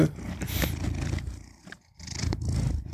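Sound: domestic cat purring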